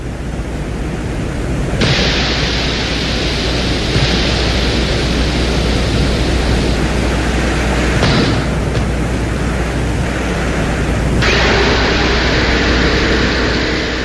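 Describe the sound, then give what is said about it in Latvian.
A harsh, noisy recording from a lander's microphone on Venus: steady hiss and low rumble, with the drill's grinding mechanical roar switching on and off as it drills a soil sample, and a brief knock as the camera lens cap is dropped midway. “Un tajā skaitā bija arī mikrofons, kas reģistrēja to brīdi, kad tiek nomests fotokameras vāciņš, urbis strādā un kaut ko izurbj mirklis Venēras radītajām skaņām.”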